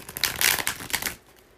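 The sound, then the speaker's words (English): A deck of tarot cards is shuffled for a tarot reading, a quick burst of crisp, flapping riffles lasting about a second before fading into near silence. No one speaks. “All right, so I'm going to go ahead and start shuffling the cards.”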